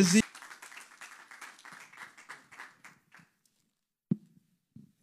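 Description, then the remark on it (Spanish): An audience applauds for Jesus on a morning, in a dense, crackling burst that gradually thins out and stops after about three seconds, followed by a short quiet gap and a couple of brief thumps. “Dale un aplauso a Jesús en esta mañana.”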